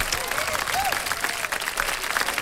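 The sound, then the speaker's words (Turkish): A steady burst of clapping hands, dense and sustained with no clear pauses, carrying on at an even, fairly loud level, with a brief faint voice-like tone mixed in. “Alkışlıyorum.”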